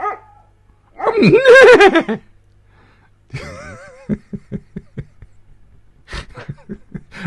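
A dog lets out a loud, drawn-out bark-whine, then a wavering yelp, followed by a quick run of short huffing sounds and a few final barks, fairly loud.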